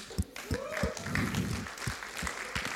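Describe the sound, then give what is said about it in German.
A short burst of audience applause for an assistant, with sharp claps landing in an uneven rhythm at moderate loudness, while a voice or two carries on underneath. “Hey, einen Applaus für meine wunderbare Assistentin.”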